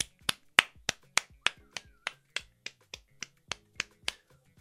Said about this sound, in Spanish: Claro, claro, claro, aplaudamos un poquito.